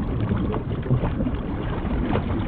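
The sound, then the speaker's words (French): Soft, continuous ocean water lapping and sloshing out on open water, a steady low wash of a wave with faint irregular splashes and a hint of wind, no voices. “C'est une force silencieuse, sauf le clapotis minuscule des coudes qui s'en échappent.”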